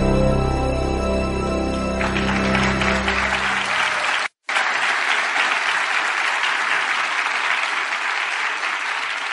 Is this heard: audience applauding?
yes